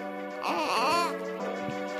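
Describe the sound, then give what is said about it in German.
A baby cries in one sustained, wavering wail with rising and falling pitch, loud, then softens into a shorter whimpering cry. No one speaks. “Baby.”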